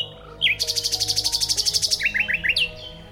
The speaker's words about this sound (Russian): Соловьиные трели можно услышать в любое время суток, но чаще всего вечером и ночью. Их тогда и слышно лучше и дальше, ведь большинство весенних певцов в это время замолкают, а вот соловьям темнота не помеха.